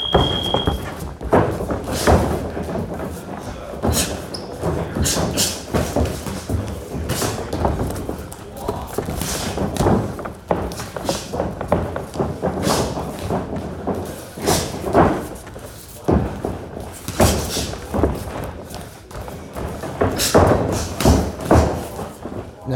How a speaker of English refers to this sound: the sounds that were actually happening like yes we were impacting like when we were landing punches and stuff like that but our feet were like four times as loud as our hands were